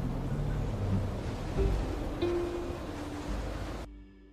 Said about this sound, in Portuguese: Durante a viagem de navio, Deus fez soprar um forte vento sobre o mar. E caiu uma tempestade tão violenta que o barco estava quase quebrando.